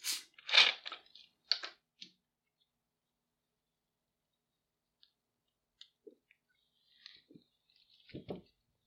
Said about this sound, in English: You know, now excuse me while I get a sip off of my Coke here.